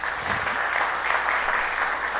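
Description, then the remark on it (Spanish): A church audience applauds Jesus at the end of a sermon, loudly and steadily, a dense wash of many hands clapping that holds at an even level throughout, with no voices standing out. “Denle un fuerte aplauso a nuestro Jesús.”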